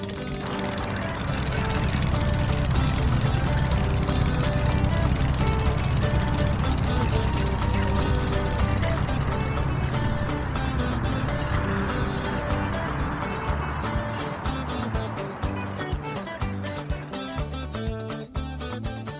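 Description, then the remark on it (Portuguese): A speedboat motor drones steadily and loudly throughout, a constant low engine roar with rushing water noise, without pause for about twenty seconds, during a roughly 30-minute speedboat ride on the Tentem river to Seu Vital's family home. “Depois de 30 minutos de lancha, chegamos à casa de Seu Vital e família.”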